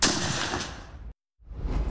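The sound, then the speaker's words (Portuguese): A loud long-range sniper rifle shot, fired by elite snipers training at a jungle infantry battalion in Manaus, booms and rolls into a long echo that cuts off abruptly; after a brief silence, another heavy blast swells in. No one speaks. “No Batalhão de Infantaria de Selva, em Manaus, os atiradores de elite precisam mais do que um tiro perfeito.”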